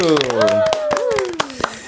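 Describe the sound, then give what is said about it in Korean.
A few people clap in quick, uneven bursts for about two seconds while a voice lets out a long, drawn-out exclamation whose pitch slowly falls beneath the applause. “자 박수.”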